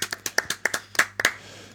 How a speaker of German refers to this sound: Ja, da klatschen wir nochmal ganz kurz.